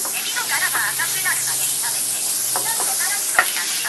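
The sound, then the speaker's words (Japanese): Small peeled shrimp, their moisture removed beforehand, sizzle steadily in a frying pan, a constant hiss with scattered light crackles and pops, while a voice murmurs faintly beneath it. “はい入れましたエビがあエビがちっちゃいんであんま水飛ばないですねあと水気も取ってたんで思ったほどじゃないな”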